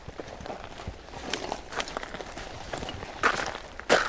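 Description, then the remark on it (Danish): Steady footsteps crunch along a foot-trodden sandy path heading toward the coast, at a relaxed walking pace, with a couple of louder scuffing steps near the end and no talking. “går ikke af vejen, vi går på stien, på ja, den øh, fodtrampede sti, og ud i den vilde natur.”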